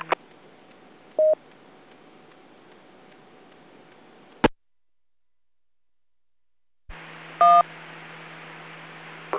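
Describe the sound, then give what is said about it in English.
Two short bursts of DTMF dual-tone beeps, from a station's radio with WIRES mode turned on while trying to check in, ride over steady radio hiss. Each is inside a separate keyed transmission that starts and ends with a click, separated by a few seconds of silence. “Okay, I heard one station trying to check in. Unfortunately, it sounds like your wires mode is turned on.”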